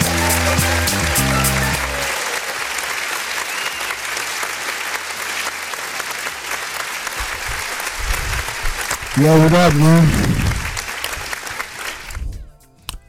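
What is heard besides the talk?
applause sound effect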